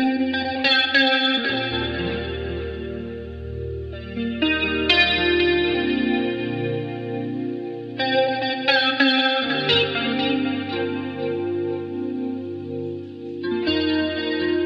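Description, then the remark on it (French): A Seaboard Rise expressive keyboard controller, controlling sounds produced by a computer, plays lush, sustained synth chords with a shimmering chorus-like effect, swelling in bright phrases roughly every four seconds over a steady low drone, with no voices. “Ça s'appelle un Seaboard Rise, un clavier avec lequel on peut faire des trucs assez incroyables.”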